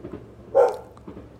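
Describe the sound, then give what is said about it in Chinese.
A single sharp dog bark rings out, loud and mid-pitched, rising above a faint low rumble of background noise; there is no speech. The family's dog downstairs is barking in reaction to the sound of firecrackers being set off. “你看我们家这底下的狗狗，它也很欢乐。对，它在对放鞭炮的声音产生很大的反应。”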